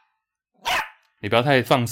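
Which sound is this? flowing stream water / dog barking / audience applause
dog barking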